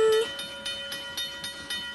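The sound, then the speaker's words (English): A level crossing gate bell rings in a rapid, steady run of metallic dings, about four strikes a second, with a sustained bright ringing tone beneath the strikes and no one talking. “It was the bell on the level crossing gates.”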